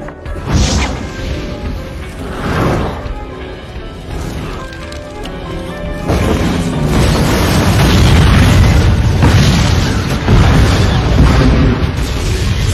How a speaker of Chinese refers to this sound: 也许是上天的眷顾吧，爆炸第一时间就把男人给崩飞了。